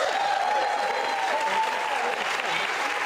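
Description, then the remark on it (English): Steady audience applause fills the whole stretch, a dense, continuous wash of many hands clapping at an even loudness, with a faint tonal whistle or cheer rising briefly above it. “So let's all pat ourselves on the back for applauding this.”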